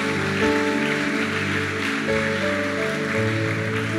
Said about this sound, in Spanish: Vamos, si tú lo puedes creer, dale un fuerte aplauso a Dios por eso.